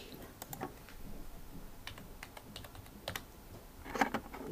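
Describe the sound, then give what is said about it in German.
Irregular clicks of computer keys and a mouse as a mistyped letter is deleted on a web page, a quick cluster at the start, scattered taps through the middle, and a final burst near the end, with no voices. “Dann sehen Sie mit äh, Ärger, dass äh, dass hier Golöf steht statt Golf, dann finden Sie hier das Ö und vernichten es mit einem gezielten Mausklick.”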